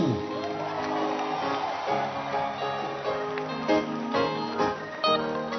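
A church audience cheers and whoops for itself during a morning service in a loud, continuous swell of many overlapping voices, with clapping and sharper bursts of shouting near the end.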